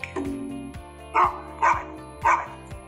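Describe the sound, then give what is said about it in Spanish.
A dog barks three times in quick, evenly spaced bursts, loud, over a steady background of light music. No one speaks. “¿Qué animal acabas de escuchar? Fue uno nuevo. ¿Alcanzaste a escucharlo? A dog.”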